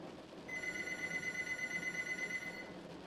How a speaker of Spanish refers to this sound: El sonido del teléfono de la sala me hizo pegar un brinco del asiento.